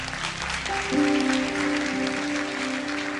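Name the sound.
audience applauding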